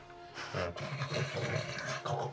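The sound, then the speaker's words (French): A voice imitates a deep, rumbling, gravelly snore in a few rough, sustained bursts, fairly loud, with a growling, rocky texture. “Et tu te fais répondre avec des ronflements rocheux.”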